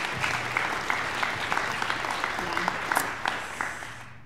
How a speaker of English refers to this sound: Go ahead and give them a round of applause. Cue applause, cue applause.